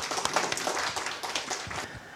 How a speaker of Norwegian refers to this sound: Eh, ved min side sitter altså HP Gundersen. Velkommen. Skal vi klappe? Takk.